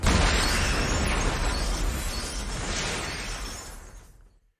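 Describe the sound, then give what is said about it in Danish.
A loud bomb explosion from the 1994 action film Speed bursts in at once, followed by a dense roar of rumbling and shattering debris that holds for a few seconds before fading away. No voices are heard. “A bomb is made to explode.”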